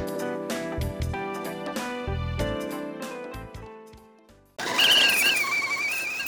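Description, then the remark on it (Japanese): A short tinkling musical jingle plays, then cuts abruptly to loud steam hissing with a high, wavering squeal riding on top for the last couple of seconds. “いい音なります。湯気の音。”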